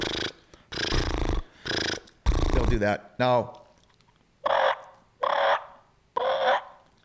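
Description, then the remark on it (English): A person makes a series of loud, rolling turkey purrs with the lips on a mouth call, in short repeated bursts, with a few spoken words in between. “Do you get a purr? Yeah. Sure. Yeah, you kind of do.”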